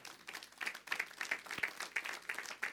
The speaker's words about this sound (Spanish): Oh, si va a aplaudir al Señor, hágalo bien, hermano.